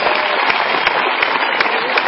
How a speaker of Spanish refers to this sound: A propósito, fuerte aplauso. Ayer quedó campeona de la válida norteamericana de la UCI 2013. Aplauso, a Ayer, campeona en Estados Unidos.